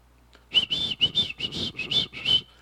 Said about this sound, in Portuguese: Aí eu lembro do meu pai, quando meu pai, eu falei assim, meu pai está chegando só pelo barulho do assobio dele.